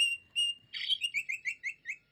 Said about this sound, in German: Amsel? Ja! Ich, hätte jetzt mit Drossel, Fink und Star weitergemacht. und die ganze Vogelschar. Ganz genau. Aber Amseln können einfach sehr schön singen.